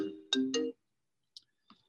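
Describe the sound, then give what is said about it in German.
A telephone rings with a short burst of bright electronic ringtone notes, two or three quick tones, followed by silence and a couple of faint soft clicks. “jetzt hat gerade das Telefon geklingelt.”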